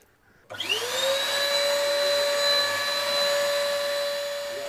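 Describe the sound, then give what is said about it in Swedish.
A ProSharp automatic skate sharpening machine switches on with a rising whine as it starts sharpening skates, settling into a steady, loud motor drone with high tonal harmonics and a low hum, running continuously without any talking. “det är ju en sån här automat ProSharp som vi har som vi vässar med så det är ju bara att sätta igång och och det där att trycka på knappen så började jag vässa.”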